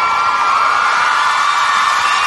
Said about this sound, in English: I think I deserve a round of applause for that.